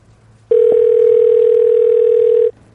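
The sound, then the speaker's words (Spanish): A steady telephone line tone before a wiretapped phone call hums for about two seconds, starting and stopping abruptly over faint low background noise, with no voices. “Entonces ahí mis contactos hicieron una intervención telefónica. ¿Quieres escuchar?”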